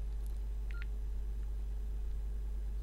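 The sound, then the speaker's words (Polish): A short mobile keypad tone beeps once, a brief electronic dual-pitch blip, with a fainter tick nearby, over a steady low electrical hum. “Naciskam ołówek i strzałkę w prawo. Nic się nie dzieje.”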